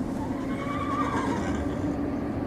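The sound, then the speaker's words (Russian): A horse neighs with a long, wavering whinny, clear, over a steady low background rumble while horses are being harnessed in a courtyard; no one speaks. “А там, во дворе, уже запрягают лошадей.”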